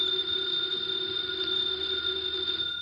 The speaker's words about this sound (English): It's the house phone